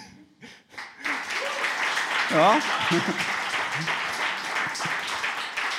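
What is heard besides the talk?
audience clapping hands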